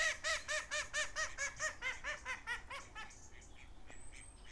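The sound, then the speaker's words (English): Geese honk in a rapid, rhythmic series of harsh calls, a dozen or so close together, at allotments on a farm, then fade into softer outdoor background with faint chirps. “And I got geese.”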